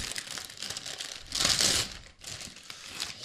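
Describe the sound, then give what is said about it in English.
Continuous crinkling of plastic packaging as a prize of Tide Pods is handled and torn open, with a louder burst of rustling in the middle before it settles into softer crackles. No one speaks. “you want me to open yeah, yeah. this?”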